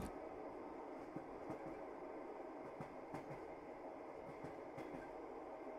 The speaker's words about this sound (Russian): Этот скоростной поезд каждый день заботливо доставляет пассажиров из точки А в точку Б.